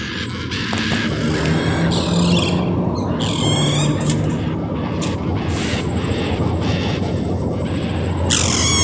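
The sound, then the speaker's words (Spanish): Parrots, parakeets and macaws give repeated harsh, squawking calls, some in short bursts and others drawn out, over a steady rushing background noise that fills the whole scene. “Los loros, las cotorras, las guacamayas son seres que reforestan.”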